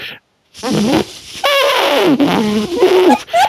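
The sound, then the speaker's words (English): A voice imitates a long, trumpety fart, a sustained buzzing blat that wanders up and down in pitch across about three seconds, loud and continuous after a brief silence. “you hear this fart start, and it's just long trumpety fart, and it's all over the scale.”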